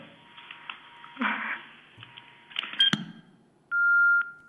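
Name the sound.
telephone dialing tones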